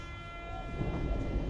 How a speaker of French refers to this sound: on arrive Gare du Nord, on a fait 6 minutes de RER e depuis notre entrée euh, au Luxembourg.